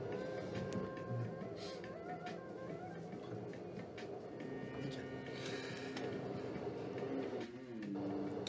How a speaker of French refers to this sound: Tu es dans le métro. Euh, et d'ailleurs non, justement, alors que tu vas rentrer dans le métro, euh, tu vois que c'est assez vide, euh, évidemment, vu cette heure-ci.